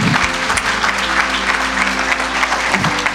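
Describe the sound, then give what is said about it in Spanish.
An audience claps steadily in loud, continuous applause for Jesus before singing a song, a dense patter of many hands sustained throughout with no pause or spoken words. “Vamos, te voy a animar que le des un fuerte aplauso Jesús antes de cantar una canción.”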